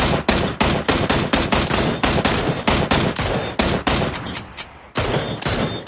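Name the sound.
video game gunfire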